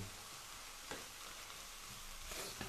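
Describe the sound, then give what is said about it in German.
A steady, dense sizzle of mushrooms and leek pieces frying in a pan, even throughout, with a couple of soft scraping stirs; no one speaks. “So, und wenn wir das Gefühl haben, dass sich das alles schon mal so ein bisschen setzt und jedes Stückchen so ein bisschen angebraten ist, dann kommen die Lauchstückchen noch drüber, die wir natürlich auch dazu nehmen können.”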